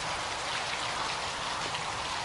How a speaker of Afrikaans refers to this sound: Hoor die wind. Hoor die reën. Hoor die nag.